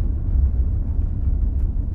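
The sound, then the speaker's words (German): A steady, low rumble of cars passing at a road crossing on a winter evening, a continuous muffled drone of traffic without any single vehicle standing out, with no voices. “Abend im Winter an einer Kreuzung in begrenzter Landschaft. Autos passieren, nichts verrät das Ziel.”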